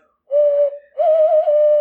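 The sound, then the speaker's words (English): A hollow, low-pitched hand whistle imitating a bird call: a steady note, a brief dip, then a longer warbling note, loud with no talking. “Um, and they communicate using hand whistles, and yes.”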